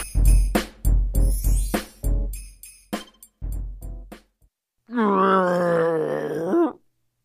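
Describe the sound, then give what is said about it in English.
A series of heavy thumping steps gives way to a loud, wavering, moaning wail, like a voice imitating Mr. Lion crying far away in the forest, lasting about two seconds before stopping abruptly. “He hears Mr. Lion crying far away.”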